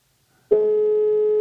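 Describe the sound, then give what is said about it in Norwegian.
A phone line's ringback tone starts after a brief silence, one steady, clear electronic beep held for about a second at moderate loudness, with no voices. “Vi prøver. Vi ringer Jon.”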